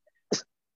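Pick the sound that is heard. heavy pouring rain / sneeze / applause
sneeze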